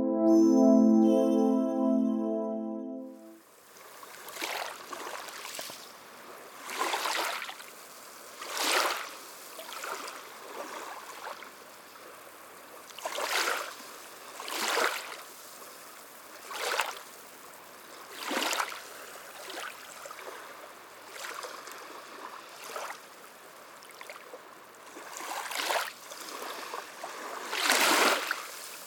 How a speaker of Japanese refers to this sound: はい続きましては王道波の音でございます今回は砂浜の穏やかな波音となっております水の音は癒しの効果が高い感じがしますよね